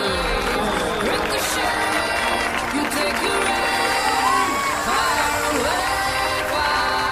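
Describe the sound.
A crowd of wedding guests, standing, claps and cheers loudly and continuously to welcome the bride and groom into the reception hall, with whoops and shouts rising over steady applause and a dense wash of overlapping voices throughout.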